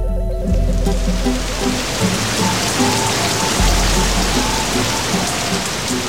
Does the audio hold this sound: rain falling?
yes